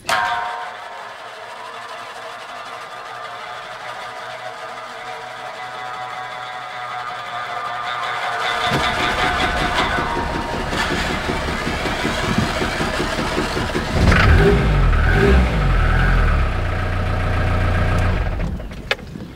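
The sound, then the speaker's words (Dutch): A car engine idles at a steady hum, then around the midpoint it kicks up into louder, rougher revving with a deep low rumble that swells and holds, with no talking, while the car is being put in order for export to Japan. “Ik ben bezig met die auto hier in orde te stellen.”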